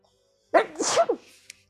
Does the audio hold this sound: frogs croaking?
no